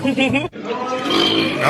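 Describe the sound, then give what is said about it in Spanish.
A loud belch from a woman during a dinner date on the TV show First Dates, rough and gurgling, with a brief pause before a second drawn-out burp that rumbles on for over a second. “Es normal eructar después de comer cuando algo te está gustando”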